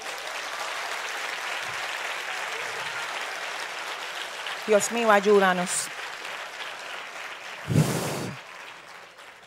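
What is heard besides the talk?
audience applauding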